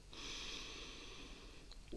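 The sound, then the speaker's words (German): A long, deep breath drawn in through the nose during a guided breathing exercise, a steady airy hiss lasting nearly two seconds, with no talking over it. “Und dann atmen wir ganz tief durch die Nase ein”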